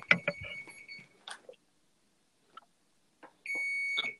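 A washing machine that has glitched beeps: two long, steady, high-pitched electronic tones, each lasting around a second, separated by a pause with a few brief faint knocks and clicks.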